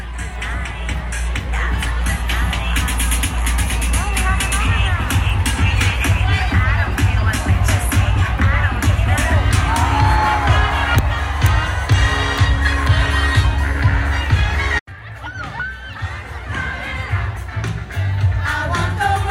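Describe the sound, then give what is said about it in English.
A loud festival crowd at Pride Fest: a dense, steady wash of many voices and shouts, with a sudden brief cut near the end before the noisy hubbub resumes. “pizza from Pride Fest. It's slightly more quiet here.”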